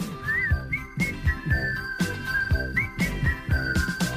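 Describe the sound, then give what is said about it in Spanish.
A clear whistled melody rides over an upbeat instrumental backing with a steady, bouncing beat, the bright whistling tune gliding between notes and standing out loud and up front; it is the closing theme song of a TV series. “… hizo la canción de cierre de la serie Willy Fogg con un silbido”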